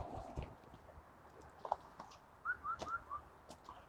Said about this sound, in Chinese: 现在最多的看见的就是四声杜鹃，不但能看见它，还能听着它叫。但是它就是不太落下来，基本上都是它在天上一边飞一边叫，很少会落到树上。